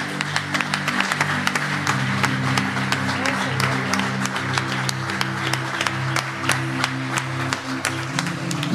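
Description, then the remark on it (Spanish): An audience applauds steadily for several seconds, dense overlapping claps forming a continuous rattle, over a sustained low organ or keyboard chord that holds underneath. “Porque quizás haya dicho, wow, yo me moví, yo me moví del lugar donde Dios me tenía, yo me moví, denle el aplauso.”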